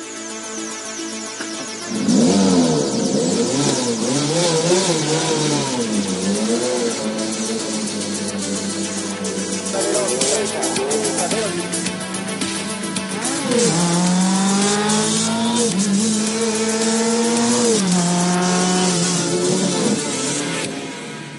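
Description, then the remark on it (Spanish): Rally car engines roar loudly and continuously, revving up and down through rising and falling pitch sweeps as the cars accelerate and shift gears, with no talking. “Arrancamos motores.”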